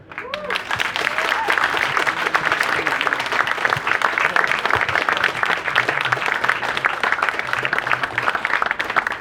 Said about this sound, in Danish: Det var bekymrende mange og store klapsalver, vi fik det.